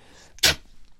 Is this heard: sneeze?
yes